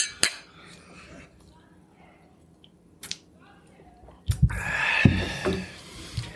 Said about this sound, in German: wir können erstmal anstoßen. Ja, Achso, natürlich ja. mit Whisky